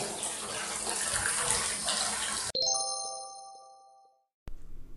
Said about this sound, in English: First of all, do you hear the water? He's running a bath for his daughter.